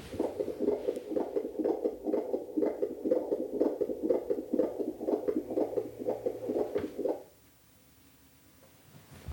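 A fetal heartbeat on a Doppler monitor, recorded by a midwife and sent by text message: fast, steady whooshing pulses, loud, running for about seven seconds before cutting off into near silence.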